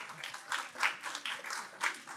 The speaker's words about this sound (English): Y'all give a round of applause for her.